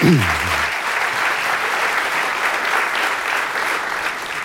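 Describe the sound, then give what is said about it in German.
An audience claps steadily for a speaker's answer in a discussion about polarization, a dense wash of many hands sustained at an even volume for several seconds, with a brief low voice fading at the very start. “Das war eine sehr ausführliche äh, und äh, sehr gute Antwort, für die es ja sogar Applaus gibt.”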